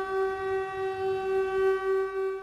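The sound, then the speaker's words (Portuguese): A loud, steady factory siren announcing the work break blares on one unwavering pitch, a sustained rich horn-like tone that holds without rising or falling for the whole stretch, with a faint low rumble underneath. “Cansado e com calor, o uniforme pinga de suor, até que a sirene anuncia o intervalo.”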